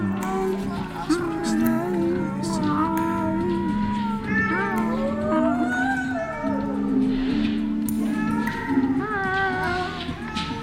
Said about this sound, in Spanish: ¿Por qué me recomendó que observara a Nigerman y escuchara a los gatos del exterior? ¿Y por qué trataba de adivinar vagamente lo que podía haberlos despertado?